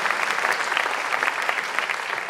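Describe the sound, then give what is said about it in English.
Steady audience applause for some Chicago public schools fills the whole stretch, a dense wash of many hands clapping at once, fairly loud, with no voices standing out above it. “And I just want to say, let's give it up for some Chicago public schools that have difficult situation, but yet they love their kids.”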